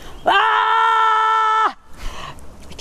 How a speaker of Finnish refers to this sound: Sitten mä sanoin hänelle, että haluaisitko sä huutaa? Et, niin Kyllä. Sitten mä katsoin hänet silmistä, huudetaan yhdessä. Sitten me huudettiin.